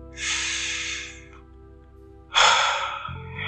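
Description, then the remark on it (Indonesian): A deep, audible breath drawn in and then let out, two long airy whooshes separated by a short pause, with no talking. “jadi kalian tarik nafas dalam-dalam”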